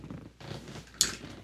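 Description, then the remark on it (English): A water bottle lid being opened: a soft rustling twist, then one sharp, crisp snap as the cap releases, followed by a brief fading hiss. “so that sound you heard that you may hear periodically throughout this recording”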